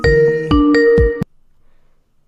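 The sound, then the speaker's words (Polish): A loud electronic ringtone plays a short melodic phrase of several quick tonal notes for about a second, then cuts off into silence: an incoming Skype call alert. “Ktoś dzwoni”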